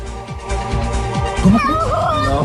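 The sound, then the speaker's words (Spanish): A cat lets out a couple of drawn-out, wavering meows midway through, rising and falling in pitch over a steady rushing background noise. “a eh, pesar del frío, a pesar de lo nublado, nos llega un saludo de un gatito fanático de este programa que en este momento está eh, nadando en una piscina.”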